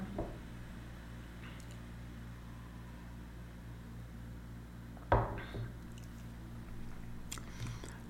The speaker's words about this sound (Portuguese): Deixa eu tomar uma água.